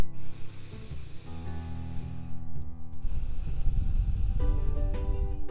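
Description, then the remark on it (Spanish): A slow, deep breath drawn in and let out, a soft airy rush over steady background music with sustained tones. No one speaks. “Y este episodio Quiero empezarlo con una respiración profunda.”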